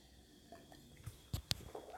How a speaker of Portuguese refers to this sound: Deixa eu tomar uma aguinha aqui, que eu não, não tomei água, hein?